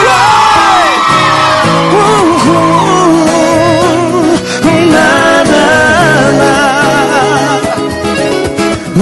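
A large crowd at a live concert in Uberlândia cheers and yells loudly and continuously as the singer calls for noise, with overlapping whoops and shouts rising and falling in pitch, sustained without a break for the whole stretch.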